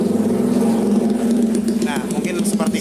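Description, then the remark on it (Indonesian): A motorbike with a loud racing exhaust drones steadily, a low rumbling hum lasting a few seconds with voices talking over it. “ada iklan sebentar ya itu mungkin, dipersembahkan dari knalpot racing”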